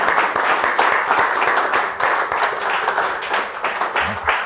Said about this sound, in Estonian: no sellega on hea lõpetada, igatahes ma palun aplausi.